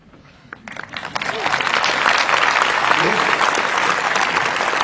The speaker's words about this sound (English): And the reason they're clapping is they know how true what I just said was. And you're clapping yet conflicted.